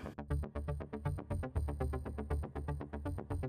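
A telephone rings on 2 September 1994 with a melodic tune of quick, evenly spaced tonal notes over a steady low hum, moderately loud, with no voices.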